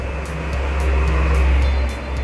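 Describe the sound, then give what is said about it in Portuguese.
A motorcycle rumbles past, its deep, rough engine drone swelling to a peak midway and then easing off, with no voices over it. “Passando uma moto aqui, pera.”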